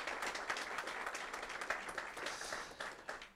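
An audience at a church service applauds steadily as a greeting to people following online, a dense crackle of many hands clapping at once with no voices, holding an even level before easing off slightly at the end.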